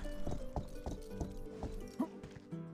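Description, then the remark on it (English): Horse hooves clip-clop in a steady, even rhythm, about eight loud hoofbeats, like a video game horse trotting over a soft, constant background tone. “Let's jump off our horse, and here's the other horse.”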